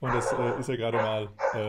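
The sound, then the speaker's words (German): A man talks steadily while dogs bark and yip faintly in the background, a few short barks rising now and then beneath his voice. “Ihr hört die Hunde jetzt ein bisschen im Hintergrund.”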